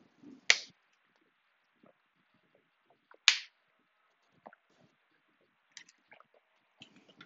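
Someone drinks up close in a quiet room: two sharp clicks, then a scatter of soft, wet gulping and swallowing sounds. No one speaks.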